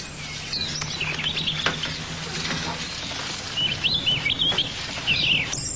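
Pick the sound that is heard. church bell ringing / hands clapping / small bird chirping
small bird chirping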